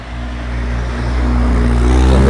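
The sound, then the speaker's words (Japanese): A kei car (Japanese light car) engine revs up loudly, its low droning hum building and rising steadily in pitch over a couple of seconds, with no talking. “すごい軽自動車なのにブンブン言いました”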